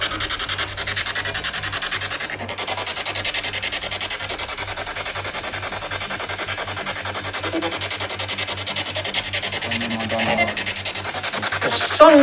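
Harsh radio static from a scanning spirit box used during a ghost hunt hisses steadily and loudly throughout, with a fast choppy flutter as stations flick past and a brief louder burst near the end.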